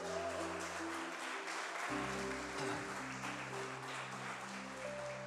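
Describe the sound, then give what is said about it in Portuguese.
A church audience claps to praise the Lord Jesus, steadily for several seconds, a dense, continuous patter of many hands, while sustained keyboard chords hold underneath and shift pitch midway. “Aplauda ao Senhor Jesus.”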